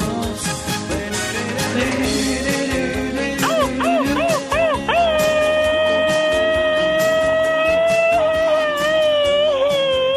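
A dog barks and yips briefly, then breaks into long, wavering howls that rise and hold steady, loud, with no one talking.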